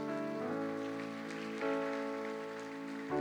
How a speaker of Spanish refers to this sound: La iglesia le puede regalar palmas fuertes al Señor.